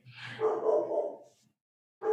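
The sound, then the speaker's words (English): A dog named Bowie barks excitedly, one drawn-out yelping bark trailing off, a short pause, then another bark starting. No one is talking. “Oh, my my dog is freaking out.”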